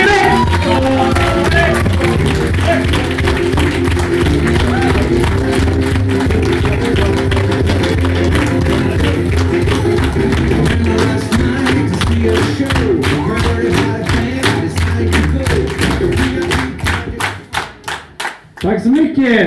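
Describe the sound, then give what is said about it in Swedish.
A comedy show audience claps and cheers loudly in sustained applause as comedian Peter Wallbeck is introduced, dense hand claps building into rhythmic, faster clapping near the end before it breaks off abruptly. “Kasta upp kalsongerna, börja tjuta, börja applådera!”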